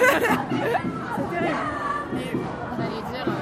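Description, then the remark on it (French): Loud, lively chatter from a group of young people, many overlapping voices talking at once in a steady, bustling babble with occasional raised exclamations. “Les jeunes foutent le bordel, ils parlent beaucoup trop fort.”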